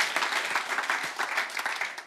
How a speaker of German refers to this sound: Ganz kurzer Applaus kommen wir noch ein bisschen in die Mitte.